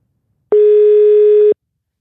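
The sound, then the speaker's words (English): A single one-second burst of an outgoing call's ringing tone, a steady, fairly loud electronic hum starting and stopping abruptly, with silence around it and no voices. “Let's call him. Let's give him a ring.”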